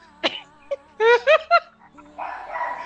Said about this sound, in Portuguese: Deixa eu pausar aqui porque a cachorra tá se empolgada.